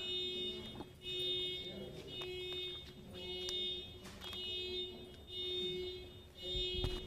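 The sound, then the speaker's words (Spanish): A car alarm blares from outside during a Spanish-language Bible sermon, a steady, piercing electronic tone that holds unbroken for several seconds over faint background noise. “¿Alguien trae algún coche con alarma?”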